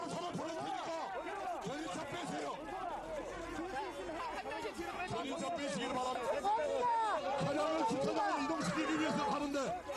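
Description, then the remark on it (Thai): Dense crowd noise throughout, many overlapping voices shouting and chattering at once, with a steady, agitated roar as police and protesters scuffle near the presidential office in Seoul, South Korea, where dog-farm operators protest a proposed ban on eating dog meat; no single voice stands out. “รยากาศการยื้อยุดระหว่างตำรวจนะครับแล้วก็ผู้ชุมนุมที่มาชุมนุมแถวทำเนียบประธานาธิบดีที่กรุงโซในเกาหลีใต้นะครับ”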